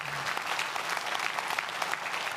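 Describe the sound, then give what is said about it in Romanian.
Steady applause from an audience in a hall during a church service, applauding those who did the work. A dense wash of many hands claps at an even level throughout, with no voices rising above it. “Haidem noi cei din sală să aplaudăm pe cei care au făcut lucrarea asta.”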